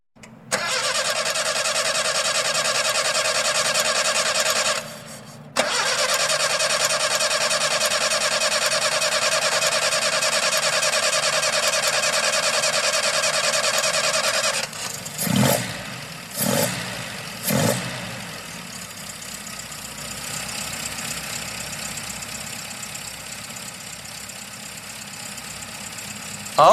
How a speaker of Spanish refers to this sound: Pero, ¿qué ven mis ojos? Arnoldo calentando el motor de su camioneta y Raquel acercándose sigilosamente le golpea la ventanilla.